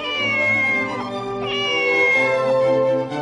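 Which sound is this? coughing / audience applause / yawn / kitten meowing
kitten meowing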